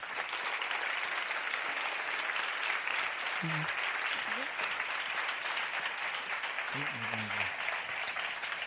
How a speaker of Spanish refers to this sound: Así que un aplauso, por favor, para los creadores, co-creadores de Arde Madrid, Ana R. Costa y Paco León.